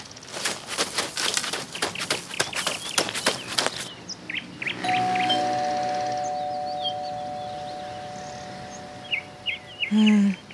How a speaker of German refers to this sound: Gut, dann lass uns bei Frau Meier klingeln. Aber leise.